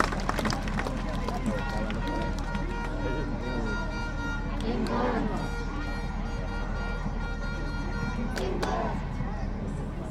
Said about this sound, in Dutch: wat geluiden horen van dat plein waar we zaten. Of dat park, dat grasveld, waar heel veel mensen zaten.